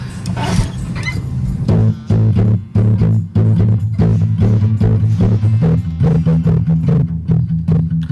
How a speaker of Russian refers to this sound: Ну, блюзовый квадрат и основная блюзовая фигура – это когда звучит квинта, и мы к ней добавляем сексту. То есть мы их чередуем, получается вот такая фигурка.